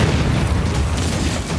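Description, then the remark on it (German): A deep, heavy underwater depth-charge blast from a trailer for the Sky One series Das Boot, a loud low booming rumble that stays strong and roiling for the whole moment without fading, with no voices over it. “Wasserbomben!”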